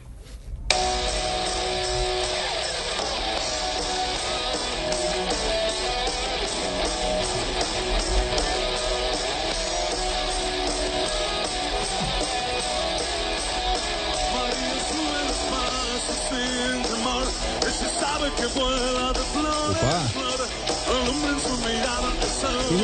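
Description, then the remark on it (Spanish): A loud, dense rock song sung by a former Argentina national team goalkeeper with his band plays steadily for the whole stretch, male singing over full-band guitars and drums filling the mix at an even volume without any talk over it. “No es mi tipo de música.”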